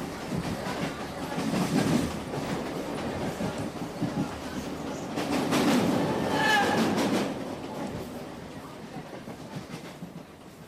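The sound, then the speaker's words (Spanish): A passenger train headed for India rumbles and clatters along the rails, with rhythmic metallic clacks and bursts of screeching over a steady low roar, while a voice speaks faintly underneath. “Pues justo los trenes también tienen estas parrillas metálicas para que la gente suba su equipaje y está justo sobre las sillas de los pasajeros.”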